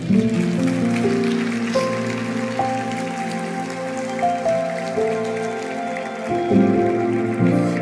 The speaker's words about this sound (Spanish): Vamos a darle un fuerte aplauso a Él.